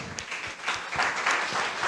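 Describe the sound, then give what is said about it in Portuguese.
Steady applause from a group clapping in praise to the Lord after a prayer, a dense wash of overlapping claps with no pauses, holding at a fairly even, moderate loudness throughout. “Glória a Deus, aplauda ao Senhor.”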